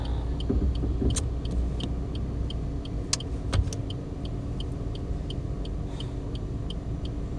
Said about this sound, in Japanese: ああどんどん来るな車